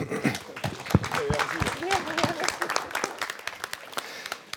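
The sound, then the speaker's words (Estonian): An audience breaks into applause for the men on the right side of the stage, a dense patter of many hands clapping with a few sharper claps standing out, while voices call out and chatter through it. “aitäh, härrad paremal serval, aitäh, teeme aplausi.”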